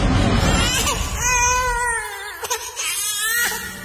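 An infant girl wails in long, strained cries with a wavering pitch, fairly loud, broken by short gasping pauses between bursts.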